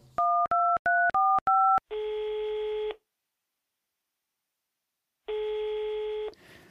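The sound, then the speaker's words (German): Five quick, clear keypad beeps of a phone being dialed to call a new colleague, followed by two long, steady telephone tones separated by a couple of seconds of silence. No one speaks. “Lass uns mal meine neue Kollegin anrufen.”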